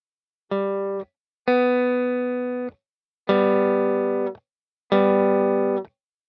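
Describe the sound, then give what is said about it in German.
An electric guitar plays the same note four times on the third string, fourth fret. Each note rings steadily for about a second, with a slightly distorted, effects-laden tone, separated by short silences, without any talking. “Ton einprägen und wieder auf der dritten Seite den gleichen Ton suchen. Wo mag er wohl sein? Auf dem vierten Bund der dritten Seite.”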